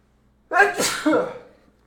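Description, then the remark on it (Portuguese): A single forceful, loud sneeze, with a sharp intake burst followed by a breathy, trailing exhale that fades over about a second. “Nossa, esse espirro foi tão forte que doeu até a costela.”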